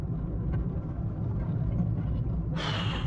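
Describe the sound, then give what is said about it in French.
A steady low engine rumble fills the interior of a moving car, constant, with a brief brighter hiss rising near the end. “Je pense que ça doit être dans ces passages-là qu'il va falloir que je que j'atténue mon bruit de moteur et mes bruits de fond de voiture.”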